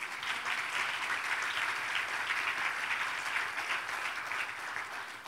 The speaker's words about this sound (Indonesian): Mana tepuk tangannya bagi Tuhan.